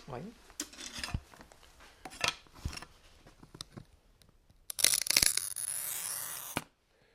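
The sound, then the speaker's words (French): Scratching and tapping of a glass cutter, followed by a louder, gritty crackling scrape as the glass is scored and snapped, ending abruptly in quiet. “Vous voyez, c'est le grésillement, la casse du verre.”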